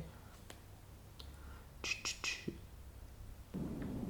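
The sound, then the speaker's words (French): Ambient white noise played from a relaxation app: a quiet, steady noise bed with a low hum underneath, broken by a few soft rustling bursts of leaves near the middle. The hiss swells slightly louder toward the end. “utiliser une application qui fait des bruits blancs comme Noisely”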